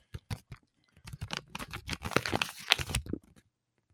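Sharp bursts of tape being peeled off an advent calendar package to open a new door on December 6. A few quick rips are followed by a longer stretch of crackly, sticky tearing and crinkling that stops abruptly. No one speaks.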